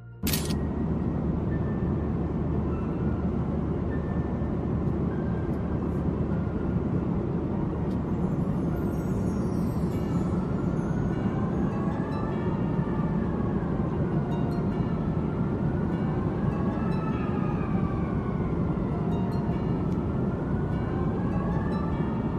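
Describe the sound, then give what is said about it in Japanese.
A steady, loud roar of airplane cabin noise just after takeoff, recorded while filming out the window, a constant deep rumble with faint whining tones that slowly rise and fall, and no voices throughout. “投稿者が飛行機に乗った際に何気なく窓の外を撮っていたところ、こいつが現れたらしい。”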